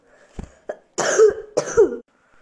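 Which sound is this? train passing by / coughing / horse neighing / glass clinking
coughing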